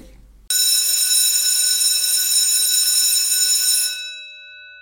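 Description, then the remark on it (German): A loud electric bell rings continuously for about three and a half seconds with a bright metallic clang, then stops and its tone briefly lingers and fades. “Also jetzt kommt die Klingel.”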